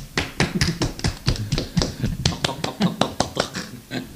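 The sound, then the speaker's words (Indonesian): A small group claps at the opening of the Explore Talk show, the sharp claps coming in quick, uneven bursts that pile up and overlap for several seconds, with a faint murmur of voices underneath. “balik lagi di acara kita nih Explore Talk tepuk tangan dong”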